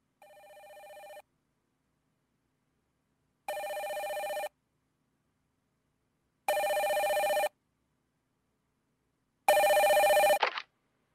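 A telephone rings four times in evenly spaced bursts, each ring a bit louder than the last, and the fourth ring cuts off abruptly as if the call is picked up. No one speaks.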